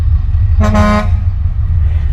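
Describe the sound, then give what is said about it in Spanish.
A single short car horn blast sounds over a steady low rumble of traffic, clear, lasting under half a second before the engine drone continues alone. “Bueno amigos, el tráfico como corresponde para un alcalde ineficiente.”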